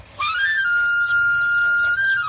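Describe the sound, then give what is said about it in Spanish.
A knife sharpener's (afilador) whistle sounds a bright, sustained reedy tone for about two seconds, holding a nearly steady pitch with a slight upward drift. It plays alone with no voices. “El afilador.”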